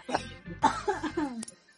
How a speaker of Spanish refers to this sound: oh, ya empecé a toser y a morir.